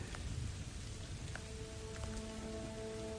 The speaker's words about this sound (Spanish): Llueve sobre el cristal, sobre el suelo, sobre los hierros callados. Llueve.